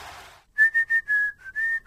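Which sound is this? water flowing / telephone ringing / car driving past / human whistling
human whistling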